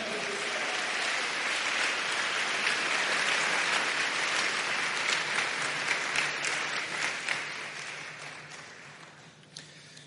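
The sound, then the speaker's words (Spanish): A crowd claps for the Lord, steadily and loudly for about eight seconds, a dense wash of many hands that thins out and fades near the end. “Ah, dele palmas al Señor.”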